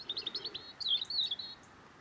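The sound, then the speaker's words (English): A robin sings a short, high piping phrase of quick thin notes, a few rapid chirps followed by a brighter warbling run, against faint background hiss. “I love the way that robins, when they're sitting at the top, especially the males, they're sitting at the top of somewhere”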